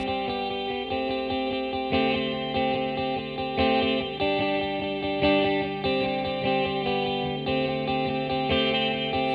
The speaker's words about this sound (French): mais avant, on va faire une petite pause musicale.